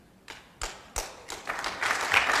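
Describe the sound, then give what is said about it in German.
Hesitant applause in a hall from generals, admirals and others present: a few scattered, isolated claps that slowly thicken into a light, uneven patter of clapping, growing a little louder toward the end. “Da gab es zaghaftes, zögerliches äh, Klatschen der Generäle und der Admiräle und der Anwesenden im Saal.”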